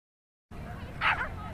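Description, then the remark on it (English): A single short, excited dog bark or yip rises briefly above a steady wash of outdoor noise, not very loud. It comes from one of two dogs arriving at Huntington Dog Beach; this dog is really excited. “We made it with two dogs. Two dogs. One is really excited.”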